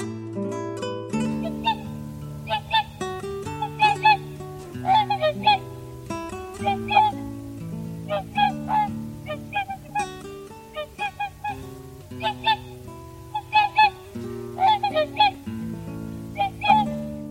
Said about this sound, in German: Das war der Singschwan.